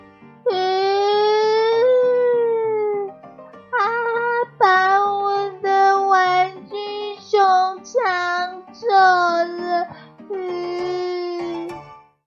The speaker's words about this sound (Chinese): 玩具熊被抢走了，可可大声的哭了起来。